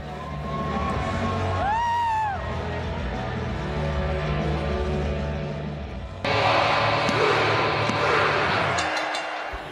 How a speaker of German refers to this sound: Und die Halle feiert einfach alles, was er macht.